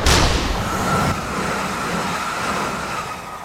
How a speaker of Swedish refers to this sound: När tåget kom in i tunneln pressades luften ihop framför tåget och en ljudvåg skapades som i slutet av tunneln blev till ett stort